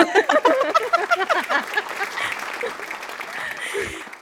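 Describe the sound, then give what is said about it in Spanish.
An audience breaks into applause, a dense patter of many hands clapping with some cheering voices mixed in, holding steady and fairly loud for about four seconds. “Por cada aplauso yo recibo dinero, así que aplauso, aplauso, aplauso.”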